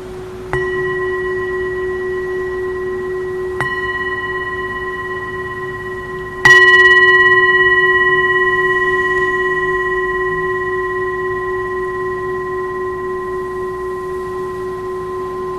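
A meditation bell is struck three times, the third strike hardest, each blending into a steady, shimmering ring with clear overtones that slowly fades. No voices are heard.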